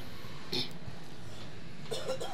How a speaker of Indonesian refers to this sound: Aduh, pura-pura batuk lagi.